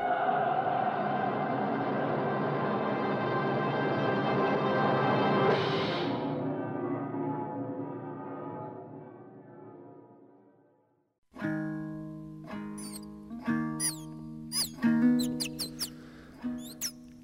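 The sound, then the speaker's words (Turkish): A young South Siberian singer imitates bird calls with the human voice, starting with a long, buzzy harmonic drone that fades out, then a string of sharp chirps and whistled trills. No one speaks. “Fonda dinlediğiniz kuş sesleri aslında bir insana ait.”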